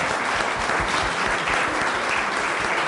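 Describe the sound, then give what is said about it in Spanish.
A crowd at a meeting applauds everyone present for attending, many hands clapping in a dense, continuous patter that holds at an even loudness for a few seconds, with no voices standing out. “Les doy un aplauso a todos ustedes por su.”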